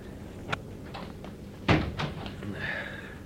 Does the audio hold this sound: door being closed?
yes